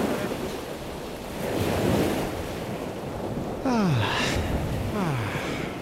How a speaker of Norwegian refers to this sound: Man kjenner du bare frustrerende i starten, men så bare tar den deilige lyden av mm. havet over. Det funker.